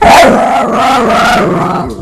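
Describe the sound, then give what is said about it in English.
A pit bull lets out a loud, drawn-out vocalization, a single continuous growling bark-like cry with a wavering pitch that lasts about two seconds, with no talking. “Are you saying that's a pit bull?”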